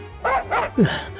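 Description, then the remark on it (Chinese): A pack of stray dogs barking as they run past people coming out of a convenience store: three quick, sharp barks in a row, the last a louder yelp that slides downward in pitch, over a low steady hum. “人们慌张的躲闪，流浪狗群跑过，人们赶紧离开，地上却留下了几张掉落的纸币。”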